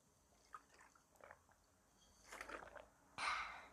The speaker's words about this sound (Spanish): Un momentito para tomar agua.